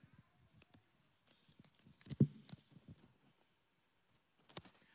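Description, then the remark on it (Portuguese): Papers being shuffled, with soft irregular rustles and crisp little clicks scattered over several seconds and one sharper crinkle midway, all fairly quiet with no voices. “Devia ter ouvido minha esposa, está difícil os papéis aqui.”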